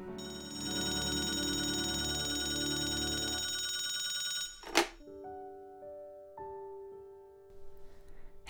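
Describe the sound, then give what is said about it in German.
A telephone rings loudly and continuously for about four seconds, then cuts off with a sharp click like a receiver being picked up, followed by a few soft sustained electronic tones. “jetzt wünsche ich dir ganz viel Spaß mit diesem Anruf vom Glück.”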